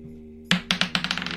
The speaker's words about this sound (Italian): È ora di affidarci ai nostri vecchi amici, i dadi. Il meglio delle tre o un tiro secco? Tiro secco.